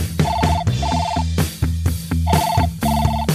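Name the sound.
telephone call ringing tone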